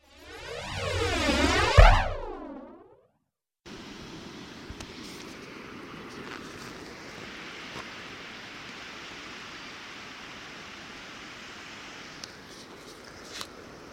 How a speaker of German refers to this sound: Dieses Rauschen kommt vom Meer. Und das Meer ist der Ozean, südlich von Australien. Wir sitzen hier gerade in Apollo Bay am Strand und relaxen ein bisschen.